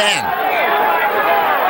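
A dense, loud roar of many voices shouting and talking at once, a constant crowd din without pause, as a stock exchange trading floor used to sound.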